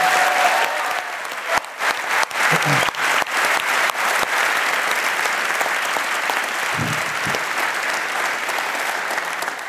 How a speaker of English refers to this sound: big round of applause, please, for Keith Higgins, our special guest tonight.